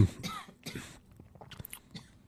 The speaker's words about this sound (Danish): Du sidder bare hoster. Det er fint nok.